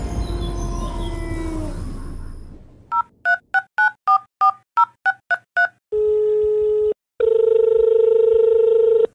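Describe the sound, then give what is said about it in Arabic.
A telephone number is punched in on a keypad to call a guest, about ten quick dual-tone beeps in an uneven rhythm, followed by two long, steady ringing tones. A gliding tonal sound comes before the dialing. “دعونا بداية نتصل”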